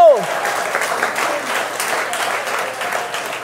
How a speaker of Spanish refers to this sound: Si usted le va a dar un aplauso, ay Dios mío.